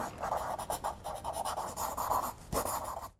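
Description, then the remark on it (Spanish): A pencil scratches steadily across paper in quick, uneven strokes, fairly soft, with a brief pause and a sharper stroke near the end before it stops. “Vamos con lápiz y papel.”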